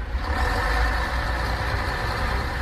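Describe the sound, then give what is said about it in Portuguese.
A large bus engine idles steadily, a continuous low rumble with a droning hum that stays even and loud throughout, with no voices. “O seu Alfredo andando de ônibus?”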